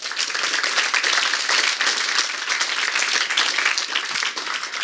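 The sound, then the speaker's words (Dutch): Sustained applause from an audience at an evening talk, for the speakers and organisers, a dense wash of many hands clapping at steady loudness for several seconds, with no voices above it. “Nog even een applaus alstublieft.”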